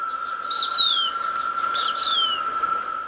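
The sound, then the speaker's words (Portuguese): A plumbeous kite, a hawk called sovi in Portuguese and a visiting bird, gives two thin, high whistled calls, each a sharp note sliding downward, spaced about a second apart over a steady high insect-like drone; no one speaks. “Nós estamos falando de um gavião, o sovi.”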